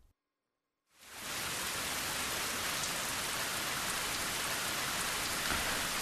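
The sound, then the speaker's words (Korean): Steady, dense rain pattering on a surface, starting abruptly after a brief silence and continuing at an even, fairly loud level with a constant hiss and scattered droplet taps. “아, 피디님께서 빗소리를 틀어주시네요. 지금 들리는 이 소리, 이 빗소리와 전부 치는 소리가 약간 흡사해서 비 오는 날 김치전 같은 게 많이 연상된다고 누가 그러더라고요.”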